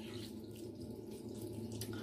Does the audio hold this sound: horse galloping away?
no